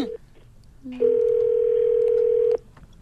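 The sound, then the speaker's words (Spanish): A single steady telephone ringback tone sounds for about a second and a half, loud and clear over faint background noise, after a brief electronic blip, as a call is placed to a woman. “Te, voy a conectar con ella, compañero. ¿eh? Le estoy llamando a ella.”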